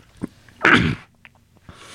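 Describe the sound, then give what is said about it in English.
A single sharp sneeze bursts out, preceded by a brief intake of breath and followed by quiet, with a faint rustle at the end. “Bless you.”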